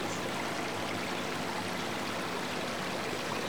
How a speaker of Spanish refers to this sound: Si hay riachuelas, las oyes.